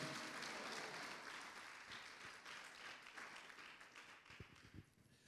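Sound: church audience clapping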